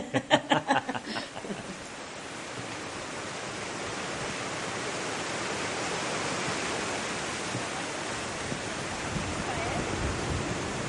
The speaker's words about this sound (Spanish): Y esa es la surgencia de la cueva. ¿eh? Todo ese agua que pasa por debajo del macizo de Collarada sale al exterior por este agujero, por esta surgencia.